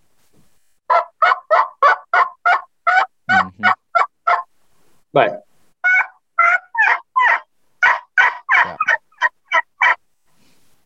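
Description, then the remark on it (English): A person makes a closed-mouth vocal elk call: a fast, rhythmic run of about two dozen loud yelps, each dropping from high to low, with a brief pause partway through. “But that that sound that I'm making right now, for anyone that doesn't know, I call it a plain yell.”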